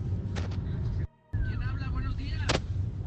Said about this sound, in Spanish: De hecho dice que esa noche pues todos los perros estuvieron ladridos porque lo que se escucha son perros que estuvieron ladre y ladra, huye, huye, pues, y todo eso.